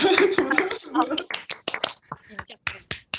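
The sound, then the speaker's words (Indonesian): A person talks briefly, then hands clap in a quick, slightly uneven run of about a dozen sharp claps that continue to the end. “tepuk tangan tepuk tangan”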